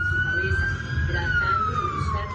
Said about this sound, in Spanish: Las sirenas comenzaron a sonar y despertaron a los vecinos del hospital Venancio Díaz del municipio de Sabaneta.